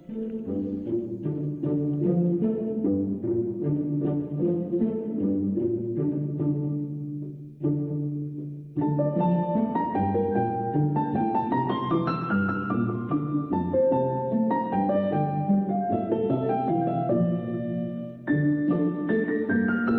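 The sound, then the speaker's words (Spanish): An instrumental score from a 2007 film plays steadily and fairly loud, with sustained harmonies and a melody that briefly drops away near the middle before swelling back with brighter, climbing lines. No one speaks. “el año en que te convenció Gracia Querejeta para ponerle música a siete mesas de billar francés, que suena así”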